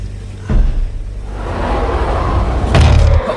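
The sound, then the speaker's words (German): A door slams shut with a heavy thud, preceded by a lighter knock, over a steady rumbling background noise, trapping the speakers inside a room far below zero degrees. “Oh, die Tür!”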